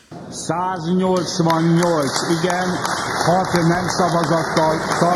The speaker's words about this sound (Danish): Ja, det er lyden af klapsalver i det ungarske parlament, som i går stemte for at ratificere et svensk NATO-medlemskab.